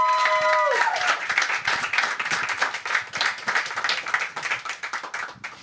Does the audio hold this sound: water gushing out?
no